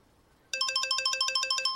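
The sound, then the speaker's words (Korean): A phone ringtone, played as the seventh hint in a quiz, starts abruptly after a short quiet moment, playing a rapid, repeating electronic melody of bright chiming tones, loud, with no voices. “전화?”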